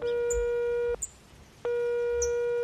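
A telephone ringing tone heard down the line as a gardener calls the landline of a villa from his phone and gets no answer: a steady electronic buzz that sounds, pauses briefly, then starts again, with a few faint bird chirps in the background.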